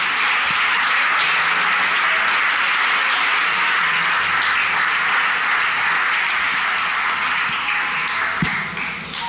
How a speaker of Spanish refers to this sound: ¿Por qué no le da un aplauso al Rey de Reyes?